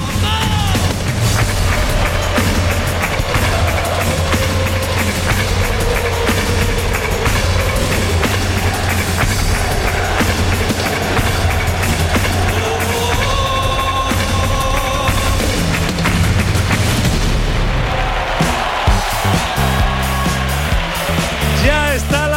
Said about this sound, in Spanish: Así suena el himno del Sevilla en directo desde el estadio Ramón Sánchez Pijuán.